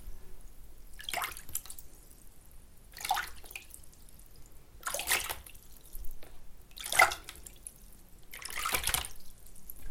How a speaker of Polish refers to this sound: Potrzebna Wam jest do tego oczywiście miska i trochę wody. jak już sobie napuścicie tej wody, no to wtedy dowolnie możecie sobie zrobić fale, takie jakie chcecie i jakich potrzebujecie, na przykład takie.